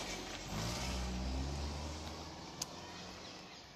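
Steady low road rumble of cars driving past, people apparently heading to work, a continuous engine and tyre drone that swells slightly and fades, with a brief faint click partway through and no talking.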